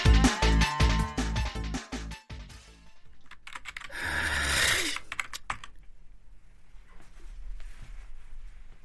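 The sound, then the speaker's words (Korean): Rapid keyboard typing on a laptop as someone sits down to write a novel, with a quick run of crisp clicks, then a brief rushing noise and a few scattered, quieter keystrokes trailing off. No one speaks. “나는 아내가 출근한 뒤 침실에서 벗어나 노트북 앞에 앉았다. 소설을 쓰기 위해서였다.”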